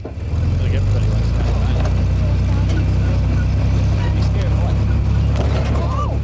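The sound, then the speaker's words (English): A tractor engine rumbles steadily, a deep continuous drone that never lets up, as it pulls a wagon carrying customers with handsaws out to the field of a pine and fir tree farm, while faint voices murmur in the background. “Outside the barn, customers pick up their handsaws and climb on board tractor pulled wagons to ride out to the field.”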